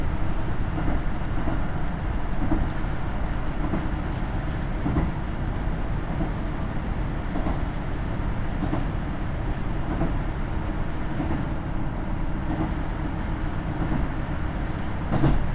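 A KiHa 75 diesel railcar rolls steadily along the tracks of the Taita Line between Mino-Ota and Tajimi, heading toward Mino-Kawai station, a constant low engine rumble and rushing noise with faint, regular wheel thumps over rail joints, and no voices.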